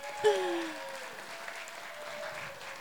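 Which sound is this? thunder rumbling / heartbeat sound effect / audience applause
audience applause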